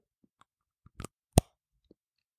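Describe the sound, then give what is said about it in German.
A crisp snap of a piece of fair-trade organic chocolate being bitten off, one sharp crack followed by a few small crunchy clicks, alone in an otherwise quiet space. “Ähm, ah, und man, man, man muss dann nur so ein Stück abbeißen, weil ich guck mal, ob ich drauf kriege.”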